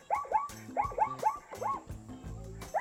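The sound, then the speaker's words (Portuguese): A zebra's barking call: a rapid run of high, yelping barks, each rising then dropping in pitch, repeating about eight times in three seconds, fairly loud, with no talking. “É o eu barulho de uma zebra.”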